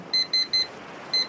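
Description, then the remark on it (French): An electronic alarm beeps in short, evenly spaced bursts—three quick ones, a pause, then a fourth—high-pitched and clear over a faint background hiss, with no voices. “Professeur, c'est quoi ce bruit Ah, ça c'est mon alarme.”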